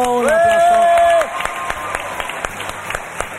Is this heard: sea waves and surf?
no